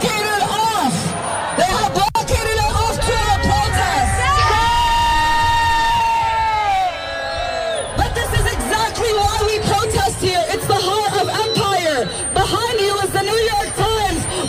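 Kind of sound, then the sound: crowd, protest crowd shouting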